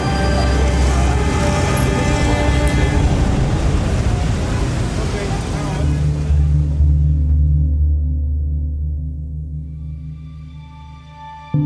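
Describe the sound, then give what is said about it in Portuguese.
Dense, loud city traffic roar with headlights on, pedestrians crossing outside the crosswalks and motorcycles cutting between cars, with long sustained horn tones droning through it; the rumble thins toward the end while a blaring horn lingers. “A esposa viajara a trabalho em meio aos faróis acesos, pedestres atravessando as ruas fora das faixas, motos loucas cruzando irresponsavelmente os carros e buzinas para todos os gostos.”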